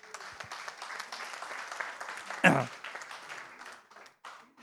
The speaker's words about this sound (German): Dankeschön. Super, Applaus.